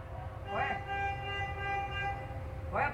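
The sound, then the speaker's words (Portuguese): A car horn blares in one long, steady, loud blast that holds for several seconds over a low rumbling background, with brief rising chirps near the start and end, as the driver of a car stopped in traffic in central São Paulo honks to drive off three teenagers attacking the car. “O trio só vai embora quando o motorista começa a buzinar.”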